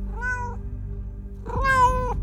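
A fluffy cat meows twice, a short cry followed after a pause by a longer, louder one, over a steady low background hum.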